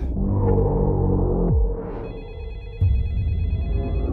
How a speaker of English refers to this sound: Hey, baby, your phone is ringing. That's not my phone.